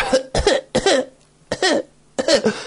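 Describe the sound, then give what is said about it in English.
A person coughs in a rapid fit, about five harsh, loud bursts with brief gaps between them, mimicking a coughing attack. No speech. “Even last week, and I think I mentioned it on the show, but even her, when she had her coughing fit of four minutes, the delivery of the line of,”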